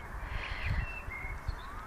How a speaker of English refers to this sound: These uh, many birds fly around me. and um, the colors the colors again those colors and uh, you know the, the singing the bird singing